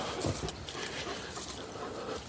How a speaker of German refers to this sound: Oh, großer Hund. Ein großer, herrenloser Hund folgt mir